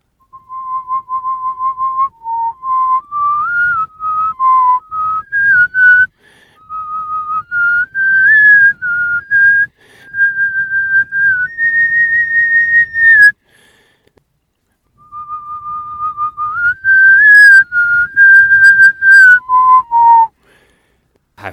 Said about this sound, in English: yeah, number three is whistling.